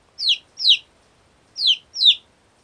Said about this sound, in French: Mais on sait par exemple que les fréquences descendantes d'un cri de poussin expriment la détresse ou le besoin, alors que les fréquences ascendantes indiquent plutôt la satisfaction.